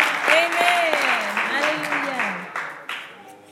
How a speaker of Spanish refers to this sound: Muchos cristianos llegan temprano. Un aplauso para los cristianos, amén. Aleluya.